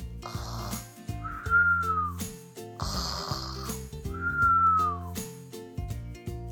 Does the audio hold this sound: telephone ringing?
no